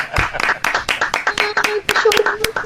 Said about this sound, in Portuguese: Vamos aplaudir essa profissional de pé.